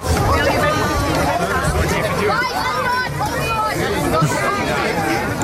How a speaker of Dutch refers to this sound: Het klinkt als eh, gevecht om Pokémon kaarten. Het was eh, echt tuimelen over elkaar heen in de museumshop eh, achteraf.